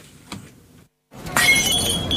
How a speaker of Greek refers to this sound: Γούρι, γούρι! Τι ξενέρο το γούρι είναι αυτό! Ποτήρι που σπάει!